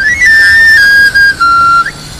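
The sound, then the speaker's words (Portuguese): A street knife grinder's plastic pan flute, heard on a Christmas afternoon, plays a bright, reedy whistle, sliding up then gliding down in stepped tones before a quick upward flick at the end, loud and alone. “ouvindo o soar daquela flauta de pan, de plástico, com este som que chama chuva.”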